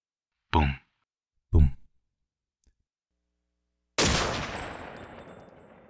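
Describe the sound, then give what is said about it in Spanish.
A woman fires a handgun at her husband, General Vidal: two short, muffled bursts a second apart, then after a pause one loud, sharp shot whose echo decays slowly over two seconds. No one speaks. “Fueron seis balazos los que descargó sobre su marido, el general Vidal, Vígamo, controlador.”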